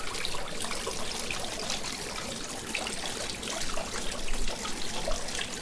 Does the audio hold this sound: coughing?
no